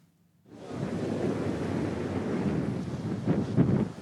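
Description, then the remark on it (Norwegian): Mediterranean waves crash and surge steadily against the Libyan coast, a loud continuous roar of surf that swells near the end, with wind buffeting the microphone and no voices. “Middelhavets bølger slår hardt inn mot den libyske kysten.”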